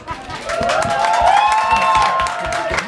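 Loud, steady applause from a crowd with scattered cheers and whoops rising above the dense clapping, sustained throughout at an even level.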